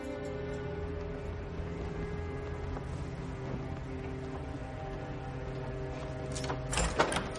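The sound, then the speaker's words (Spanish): A steady low mechanical hum runs throughout, then near the end Baelish shuts his door with a short, solid clunk and locks it with a key, a quick metallic click of the lock turning. “Cierra su puerta con llave.”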